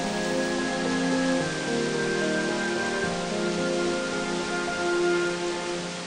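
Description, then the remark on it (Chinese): The Tianlin Waterfall, a wide waterfall, plunges straight down into a lake at sunset in a steady, dense rush of water noise that holds evenly loud for the whole stretch, with no voices and a faint tonal hum woven underneath. “只见一条宽大壮观的瀑布直泻湖底，浪声滔天，水声如雷，气势非常恢宏。”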